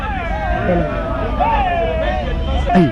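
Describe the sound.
Dense street crowd hubbub in the streets of Douala, with many overlapping voices, traffic rumbling steadily underneath and a siren-like wail rising briefly near the end.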